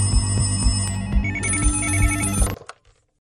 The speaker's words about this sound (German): In der Keitstraße klingeln die Telefone. Neun Hinweise gehen ein.